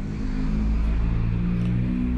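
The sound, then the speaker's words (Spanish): A truck passes by outside in the morning, its deep engine drone steady and fairly loud for the whole moment, with no voices over it. “el problema de grabar en la mañana es que pasan muchos camiones y se va a escuchar ahí el sonido.”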